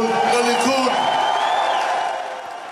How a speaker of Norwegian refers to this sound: Mot alle odds en siger til Likud, sa Netanyahu til jublende tilhengere i natt.